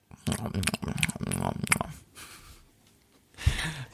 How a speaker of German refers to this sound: Vor allem die Schmatzer fand ich sehr gut. Ja, ja. Die sind ja eh schon vorhanden bei uns im Podcast.